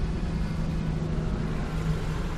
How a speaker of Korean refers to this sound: 타이어가 커다란 자갈 위를 지나간다. 자그락자그락 소리와 함께 민박집 마당에 들어선다.